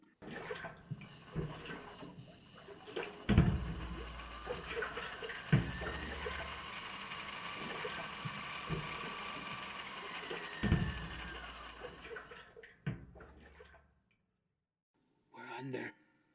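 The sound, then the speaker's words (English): A diving sphere with quartz glass windows is lowered by winch from the end of a boom into water: a few heavy clunks ring out over a steady rushing, bubbling wash of water that fades out, followed by a short burst of noise. “Letting us down in the water, are they? Yes, sir, in a moment.”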